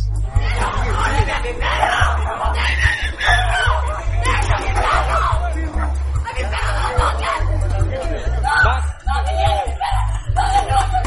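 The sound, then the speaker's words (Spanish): A woman shrieks from a balcony as police take a man away, in loud, piercing, high-pitched bursts, one after another, over a dense noisy background, with barely a pause across the whole stretch. “Cuando la policía ya se estaba llevando la dependencia de este buen hombre en paños menores, salió por el balcón a gritar con un cable pelado en la cabeza, presumiblemente su mujer. Reproduzco a continuación sus chillidos.”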